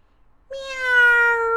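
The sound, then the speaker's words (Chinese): A single drawn-out meow from a patterned-fur cat (huamao) in a story begins after a short silence, a bright, fairly high-pitched tone that holds steady and sags slightly in pitch over about a second, fairly loud and with no talking. “花猫可喜欢吃老奶奶做的蛋糕了呢。”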